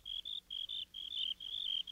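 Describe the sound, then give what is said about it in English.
Three crickets chirp in a steady, high-pitched trill of repeated bursts, several overlapping voices pulsing about four or five times a second, with no talking. “Soon there were three crickets chirping.”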